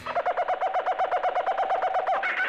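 A monkey calls loudly in a forest, a rapid, evenly paced string of about fifteen hooting pulses that shifts into a higher, shriller cry at the end. No one speaks.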